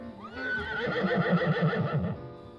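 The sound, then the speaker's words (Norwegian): Shigar, a retired racehorse sent to a farm for breeding, whinnies once, loud, its call rising sharply and then shuddering in a long trembling whinny for about two seconds before cutting off. No one speaks. “Eierne til Shigar bestemte seg for å pensjonere den enestående hesten, og sendte han til en gård hvor han skulle bli brukt til avl.”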